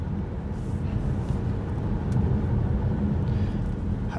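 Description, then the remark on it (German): Steady low road rumble fills the inside of a car moving at speed on the A8 motorway during a car phone call, a constant dense drone of engine and tyre noise with faint hiss above, no voices present. “Am Autotelefon auf der A8”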